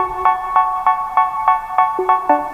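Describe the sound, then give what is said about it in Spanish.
A pop song plays loudly with bright, buzzy synth chords pulsing on a steady quick beat, the melody stepping between notes near the end. No one talks over it. “Recuerdo que estábamos a punto de levantar el teléfono tú y yo y levantar todo el mm. programa para cambiarlo y sonaba esta canción”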